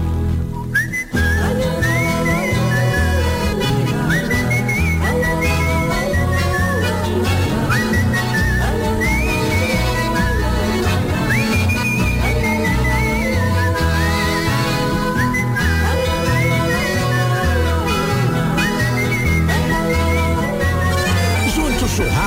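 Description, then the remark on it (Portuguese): A bright, ornamented whistled melody, a florid country-style (campeira) verse tune, carries on steadily for the whole stretch, riding clearly above a full instrumental accompaniment with a strong rhythmic backing. “Eu trazia sem fastio, saudando a estrela boieira, uma coplita campeira bem floreada no assobio”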